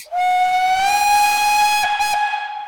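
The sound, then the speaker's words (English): A loud, sustained steam train whistle from the locomotive Pride of Duskwall as it departs the station blows one long, steady note for a couple of seconds, over a rushing hiss of escaping steam, prominent with no voices. “And the uh, Pride of Duskwall, the front belches out fire and smoke”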